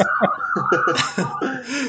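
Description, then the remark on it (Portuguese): An ambulance siren passing by outside holds a steady, slowly wavering wail at moderate volume in the background, while voices chatter and chuckle over it. “Já Sempre tem um momento de tá ambulância.”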